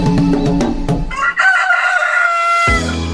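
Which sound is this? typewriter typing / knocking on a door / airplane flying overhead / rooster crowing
rooster crowing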